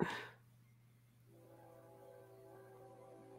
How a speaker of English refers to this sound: hear that train. Mm. Oh, you can hear the train.